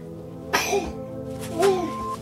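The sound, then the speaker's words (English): A young boy sneezes twice in quick succession, each a sharp burst followed by a brief voiced trail. “Bless you, darling.”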